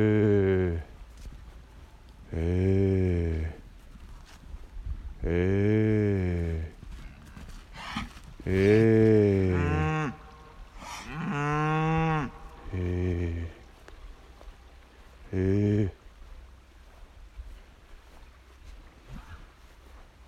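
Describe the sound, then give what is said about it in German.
Two cows moo repeatedly as they come running toward the speaker, a series of about seven loud, drawn-out bellowing calls rising and falling in pitch, separated by short pauses, with faint outdoor background noise between them. “Okay, da kommen zwei Kühe auf mich zugelaufen.”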